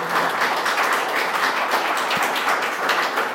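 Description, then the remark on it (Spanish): A church audience claps together in steady, dense applause for the Lord for a few seconds, loud and continuous, with no voices standing out. “Un aplauso al Señor que puso en su corazón.”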